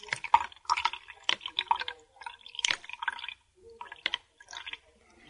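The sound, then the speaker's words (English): A pile of coins, 18.6 grams in all, dropped one after another into water to measure their displacement and density, producing quick splashy plops and clinks at an uneven pace, moderately loud, with no talking. “if you could drop them in the water”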